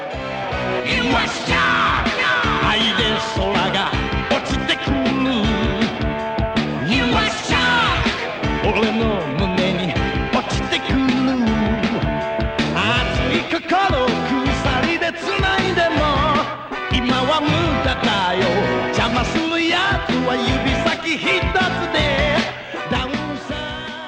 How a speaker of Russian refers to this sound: К середине 80-х этот стиль музыки освоили и исполнители аниме-опенингов. Например, так звучит опенинг из культового аниме про постапокалипсис «Кулак Северной Звезды».